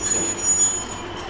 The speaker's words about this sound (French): Ça, c'est le train qui roule entre Dakar et Thiès.